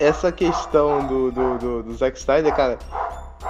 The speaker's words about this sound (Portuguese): Desculpa o cachorro, gente.